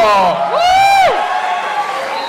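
An audience cheers and claps, with loud rising and falling whoops over a steady wash of crowd noise that carries on for a couple of seconds.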